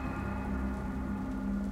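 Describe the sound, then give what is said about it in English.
Steady rain falls continuously at the side of a road outside a rain-washed window, at a low level, a soft even wash with a faint low hum sustained underneath and no voices. “Down there, at the side of the road, standing in the rain and looking up into my window, right at me, is my family.”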